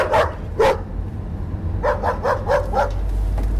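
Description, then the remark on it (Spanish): Dogs bark at a woman in two sharp pairs of yaps, then a quick run of five or six barks follows, over a steady low rumble of background noise. “...no sabía que los perros te odiaban tanto...”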